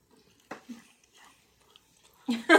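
Wet chewing with smacking, crunchy bites: one sharp burst, a few softer mouth noises, then a louder cluster of open-mouthed chomps at the end. No one speaks.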